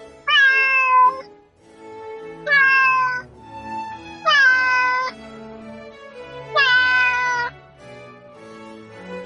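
A cat meows four times in a row, each call loud, drawn-out and falling in pitch, spaced about two seconds apart over a steady, low background hum.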